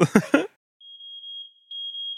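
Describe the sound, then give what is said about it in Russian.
A fire alarm sounds a sustained, shrill high-pitched electronic beep that briefly dips partway through, following a short burst of voice at the very start. “Внимание, пожарная тревога.”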